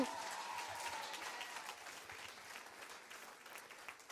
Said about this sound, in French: Alors combien on peut plus faire la fête quand on va acclamer notre roi des rois qui a gagné sur toutes les victoires On peut l'acclamer bien fort, mais bien fort